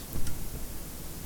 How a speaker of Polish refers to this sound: I tak jest na kasetę żelazową. A teraz Nacisnę przełącznik na kasetę chromową i zobaczymy, że zmniejszy się poziom szumu. Trochę się zmniejszył.